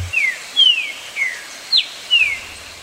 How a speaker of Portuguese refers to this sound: Quem ouviu esse canto na natureza é um privilegiado, porque é na natureza que essa ave canta alegre. Afinal de contas, é uma das aves mais capturadas para criação em gaiolas. Infelizmente, essa é uma prática que ainda ocorre no Brasil.